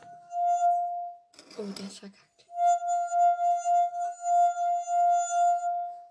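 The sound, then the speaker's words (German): A finger dipped in water to wet it circles a glass rim, drawing out a steady ringing tone that swells and pulses; it cuts off briefly for a short spoken remark, then resumes, sustained. “Finger reintunken, damit es nass ist. Und dann müsst ihr halt so auf dem Rand so lang gleiten.”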